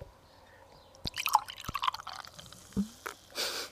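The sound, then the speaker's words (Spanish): A plastic bottle of Argus beer is opened with a few sharp crackles and clicks, followed by a short burst of liquid pouring and fizzing, with no talking. “Como la cerveza que está abriendo el señor Sharin aunque esa cerveza suena poco sexy, porque esto es un poco de plástico.”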